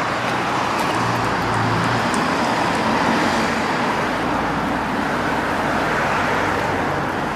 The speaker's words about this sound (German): Hört ihr diese Idylle? Das sind drei Viertel der Tour vom Schliersee. Es ist sehr, sehr schön und entspannt. Also wenn ihr mal ein bisschen Autolärm wegatmen möchtet, äh, ja, dann, dann könnt ihr das hier probieren.